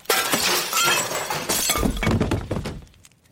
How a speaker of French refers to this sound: Quelque chose avait brisé une des fenêtres de l'étage supérieur.